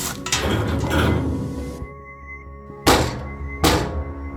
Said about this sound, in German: Still, verrammeln wir die Tür mit dem alten Blechschrank hier.